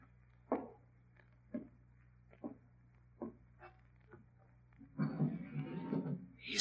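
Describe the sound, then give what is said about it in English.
A few evenly spaced soft thumps, then a sash window is pushed up with a rough, grinding wooden scrape and creak lasting over a second. The sounds are fairly quiet, with no talking. “raising the window.”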